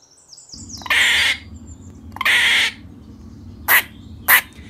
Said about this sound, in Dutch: Zeg, ben je ook zo benieuwd welke geluidjes een eekhoorn maakt? Met mijn ultramicrofoon kan ik van heel ver de geluiden opnemen en beluisteren. Luister maar.